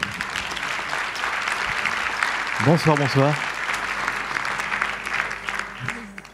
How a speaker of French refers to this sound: Et donc, je vous demande d'accueillir sous vos applaudissements